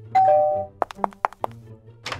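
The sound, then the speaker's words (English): A two-note doorbell chime rings once, falling in pitch, as a ding-dong-ditch prank at a neighbour's house down the street, followed by a quick series of about five sharp knocks and a brief rustling noise at the end. “They'd start off simple like, okay, I dare you to ding dong ditch the guy with the eye patch that lives down the street.”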